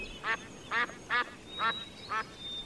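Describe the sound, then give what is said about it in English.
Five loud, evenly spaced duck quacks ring out in a park where a family is feeding the birds, each a short raspy burst, with a faint high whistle threading through the background and no one talking. “Wilma, Wilf, and Dad fed birds.”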